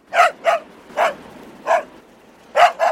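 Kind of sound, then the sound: animal, dog barking loudly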